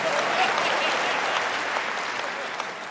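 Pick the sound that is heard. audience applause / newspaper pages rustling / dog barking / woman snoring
audience applause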